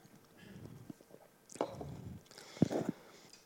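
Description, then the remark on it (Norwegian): Someone takes a drink of water, with a couple of soft gulps and wet swallowing noises amid quiet handling sounds, and no talking. “Nå må jeg drikke litt mer vann.”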